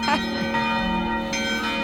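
The church bells of Rayanne ring out over the Sunday market in a steady, overlapping peal, each strike blooming into a long metallic hum that hangs in the air, fairly loud.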